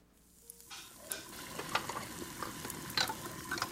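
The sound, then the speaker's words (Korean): In a home kitchen, side dishes (stir-fried anchovies and soy-braised beef) are being made: food sizzles and crackles in a hot pan while a utensil scrapes and stirs in irregular bursts, a steady frying hiss underneath. No one speaks. “아, 말은 그렇게 했지만 그간의 반찬을 맛볼 걸 알았기에 전 온 집안을 뒤집어 놓으며 반찬을 만들었습니다.”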